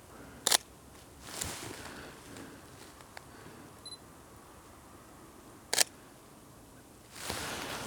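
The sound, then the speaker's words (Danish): Camera shutter clicks while taking a photo in Southern Jutland, Denmark: a sharp click, a softer one, another sharp click, and a longer mechanical whir near the end, spaced irregularly with no talking. “Se vi kan tage et billede af den her kan være lidt sjovt.”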